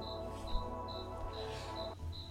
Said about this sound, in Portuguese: Né, esse grilo aqui, ele é parça. Esse grilo aqui, ele fica aqui louvando a Deus. Nervoso aqui o bichinho.